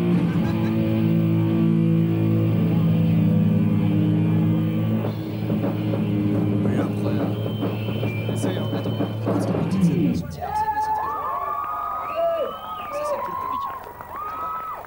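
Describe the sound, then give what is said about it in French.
Loud, heavily distorted grunge rock blares in a live concert recording captured on VHS about 25 years ago, a thick saturated wall of guitar for about ten seconds, then thins into a murkier stretch with wavering, voice-like tones over the noise. “Ça sent bon le rock …, brutal, mélodique, dissonant et saturé, de la mélancolie dans une bouillie bruyante.”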